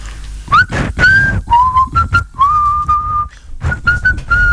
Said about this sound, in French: Et quand on siffle, est-ce qu'on utilise ses cordes vocales Enfin, j'essaye.